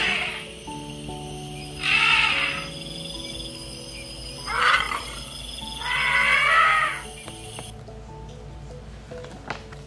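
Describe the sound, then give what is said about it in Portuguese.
A single elephant trumpets three times, two shorter blasts and then a longer one, loud and brassy over a steady background of soft music, with no one talking. “Então, ó, eu vejo com os meus olhinhos um elefante sozinho.”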